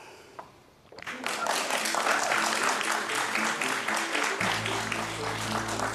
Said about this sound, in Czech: Já doufám, že potlesk se mi odečte z limitu.